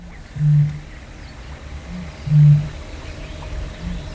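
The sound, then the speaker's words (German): Eurasian bittern booming, recorded at midnight: two deep, resonant low booms about two seconds apart, each with a softer echoing boom after it, carrying over a quiet, hissy outdoor background. “Man hört das kleine Sumpfhuhn, Graugänse, Wasserrallen, Blässrallen, einen Höckerschwan, Teichrallen und die Rohrdommel. Sie hört sich so an.”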